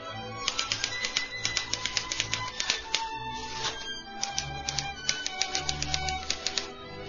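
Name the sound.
typewriter typing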